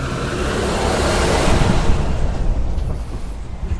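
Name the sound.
truck driving past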